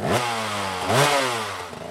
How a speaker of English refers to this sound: I'll start the course on this motorcycle.